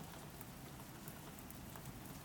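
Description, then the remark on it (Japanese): Steady rain patters down in a soft, continuous hiss of many fine drops, quiet and even throughout with no voices or other sounds. “雨の音が聞こえる”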